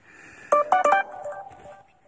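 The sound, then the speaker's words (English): A phone ringtone chirps a quick melodic run of bright electronic beeps, with a few punchy tones up front then softer notes trailing off, clear with no talking. “That's my phone.”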